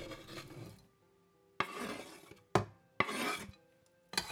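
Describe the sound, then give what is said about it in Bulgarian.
A peeled vegetable, cut into half-moon slices, is tipped into a metal pot on the stove, making several clattering bursts with sharp starts and short rustling tails, separated by brief quiet gaps. “И го слагам в тенджера на котлона.”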